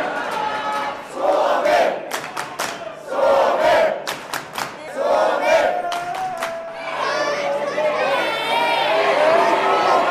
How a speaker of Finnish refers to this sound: teki maalin ja yleisö juhlii jo varmaa maailmanmestaruutta Suomi-baarissa Berliinissä.